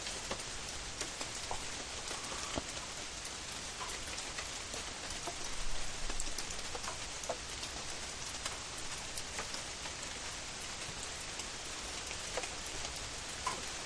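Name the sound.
rain falling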